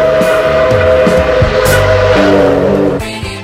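A loud, continuous train sound rumbles and clatters with shifting, droning tones for a few seconds as the song opens, with no talking over it.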